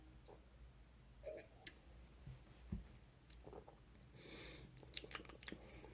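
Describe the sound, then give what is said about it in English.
Quiet sipping of juice from the body of a bottle: a few soft slurps and wet mouth clicks scattered over several seconds, with a small swallow in the middle and no talking. “And now I'm going to take a sip of the body.”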